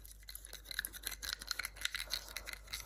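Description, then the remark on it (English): Soft ASMR biting mouth sounds: a quick, irregular run of crisp, wet clicks and crunches, high and hissy, repeating steadily throughout with no talking. “Did you like that biting sound?”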